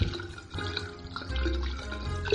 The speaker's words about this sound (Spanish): Si este pelo se engancha en la rejilla que suele cundir en dichos agujeros, Bastará abrir un poco la canilla para que se pierda de vista.